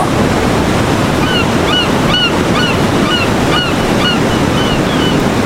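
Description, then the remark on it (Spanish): Ocean waves wash steadily onto a beach in a constant, loud roar of surf, while a series of short, rising bird calls repeat faintly above the noise. No one speaks. “Sin abandonar la respiración y sin abandonar la relajación muscular, vas a ir conectándote con esta playa donde estás en tranquilidad, en soledad, en paz, en libertad.”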